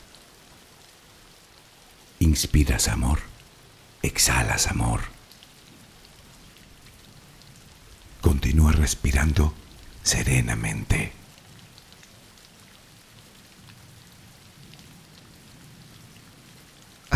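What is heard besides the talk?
rain falling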